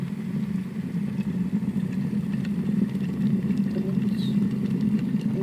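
A steady, low, churning rumble of water bubbling hard, with large bubbles rising continuously and only faint scattered pops on top, with no voices and no break for the whole stretch.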